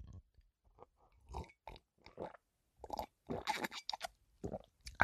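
Someone noisily drinking coffee: a string of wet slurps, sips and smacking mouth sounds in irregular bursts, getting louder and busier toward the end, with no talking.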